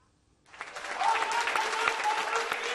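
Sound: audience applause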